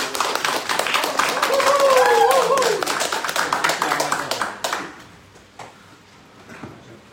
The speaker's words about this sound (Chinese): 那我们用用最热烈的掌声来欢迎